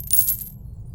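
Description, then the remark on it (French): A short bright metallic jingle of coins thrown by people clattering down, a quick burst of clinking over a low rumble that rings briefly and then fades within half a second. “Euh, ils commençaient à garocher de l'argent.”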